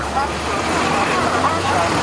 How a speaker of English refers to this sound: When the garbage truck heads out, it is typically accompanied by a recycling truck.